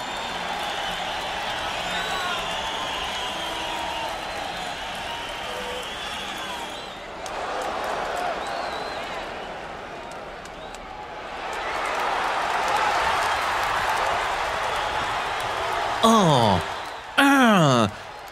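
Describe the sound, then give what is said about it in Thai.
A large crowd roars and cheers at a sports event, a dense wash of voices that swells louder midway, with a few sharp rising whistles near the end. “what's that noise what are they doing well, that's the sound of people's cheering at some sports event”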